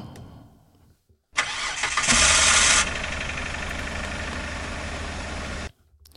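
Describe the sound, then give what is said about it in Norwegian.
A car engine cranks and catches with a loud roar, revs briefly, then settles into a steady idle before cutting off abruptly. No voices are heard. “Men jeg tror vi alle vet at hvis konen har lyst på ny vaskemaskin, så er det bare å starte bilen og hekte på tilhengeren med en gang.”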